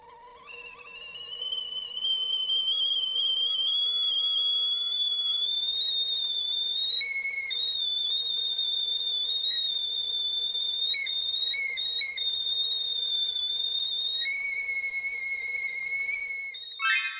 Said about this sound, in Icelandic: Þetta er blístur í katli þegar vatnið er að sjóða.